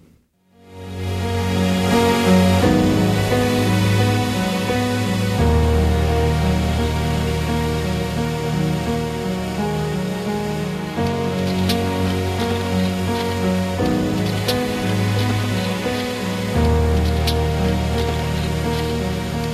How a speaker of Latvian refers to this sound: Šajā brīdī es gribētu, lai skan kāda dziesma, un pēc šīs dziesmas mēs tālāk iesim jau pie vārda.